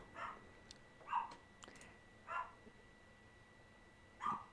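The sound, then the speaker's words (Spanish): A dog barks four times at uneven intervals of roughly a second, each bark short and somewhat muffled, over a faint steady background hum. “Perdonen, se escucha un perro.”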